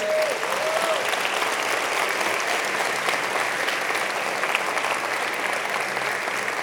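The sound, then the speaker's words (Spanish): An audience claps steadily for several seconds as applause to God, a dense, even wash of applause with no voices clearly standing out, holding at a consistent loud level throughout. “Bueno, dale un aplauso a Dios.”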